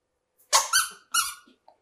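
A squeaky rubber duck squeaks twice in quick succession, each squeeze a bright, wheezy honk, followed by a brief faint click.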